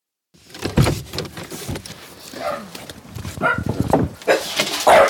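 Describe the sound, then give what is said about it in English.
A dog at an isolated rural house barks at visitors it has not met before. It barks several times in irregular, fairly loud bursts, mixed with some mechanical rattling and shuffling noises in the background. “I forgot that he barks when he hasn't That's met okay. people before.”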